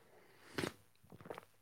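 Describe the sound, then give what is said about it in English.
Someone takes a quiet sip of coffee from a cup: a short breathy slurp, a few soft mouth and swallowing sounds, then another brief slurp at the end, with no talking. “Ooh, that almost qualified for the second sip of the day.”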